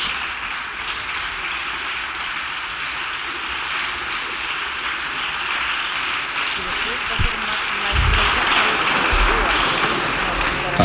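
Sustained applause in parliament during the government control session, before Sánchez replies to Cuca Gamarra: a dense, steady wash of many hands clapping at once, with a few louder bursts and some low murmurs and thumps beneath it.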